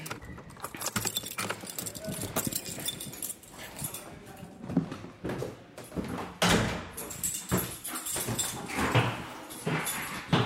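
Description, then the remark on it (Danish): Clattering and clicking of a key working a lock as a person lets themselves in, followed by a door handle and the door swinging open, with brief knocks and shuffling throughout. “Nu låser jeg mig ind.”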